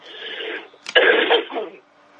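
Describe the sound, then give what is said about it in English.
A single sneeze: a breathy intake, then a sharp, loud burst that trails off into a rough, noisy exhale lasting under a second. No one speaks. “Bless you.”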